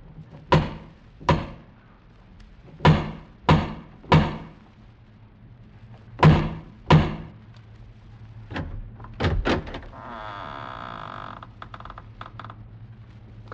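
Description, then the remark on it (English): Heavy thuds on a massive wooden door ring out loud, about ten blows in irregular pairs and clusters, followed by a brief rasping scrape as the sound dies away. No one speaks. “strode across the gravel, and up to the massive wooden portal, the door of the House of Usher”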